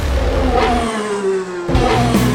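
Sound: car engine revving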